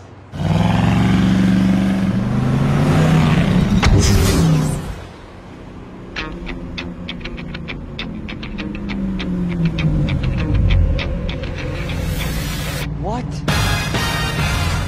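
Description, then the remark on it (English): A Camaro's engine revs loudly for several seconds, its pitch climbing, then drops to a lower rumble as the car pulls away amid scattered clicking and faint background voices. “That car is sensitive. I mean, four thousand dollars just drove off.”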